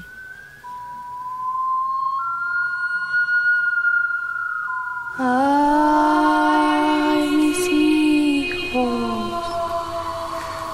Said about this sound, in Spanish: ¿Reconocen ese grito aterrador? Seguro a algunos se les puso la piel chinita y les dio miedo.